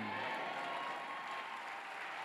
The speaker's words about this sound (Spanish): Si le va a aplaudir, que le duele la mano. Dele un grito de júbilo.